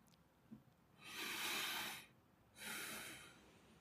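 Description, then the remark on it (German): A deep breath taken together: a long rushing inhale followed after a short pause by a slightly shorter exhale, airy, with no talking. “Und wir atmen nochmal.”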